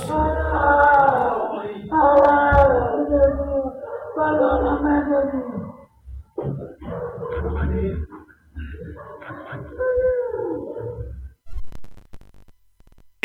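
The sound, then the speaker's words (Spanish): A young man, just run over by a police patrol car, moans and wails loudly in pain in a series of long, strained cries broken by short gasping pauses, growing more ragged toward the end. “De inmediato se baja un oficial y bueno, pues escuchemos estos eh, lamentos.”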